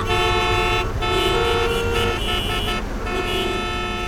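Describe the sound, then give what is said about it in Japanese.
Several car horns honk loudly and persistently over a dense traffic rumble, overlapping blasts sustained across the whole stretch like a jammed street. “働く私たちにとって移動中の渋滞は本当に嫌”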